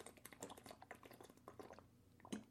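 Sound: person drinking water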